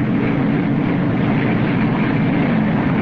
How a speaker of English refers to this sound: this roar that you're hearing is absolutely overwhelming. They're just about to tap this BOF.